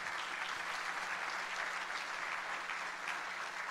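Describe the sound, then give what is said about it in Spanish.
An audience applauds steadily for a few seconds, a dense, even wash of many hands clapping at once, with no one speaking over it. “Déselo fuerte.”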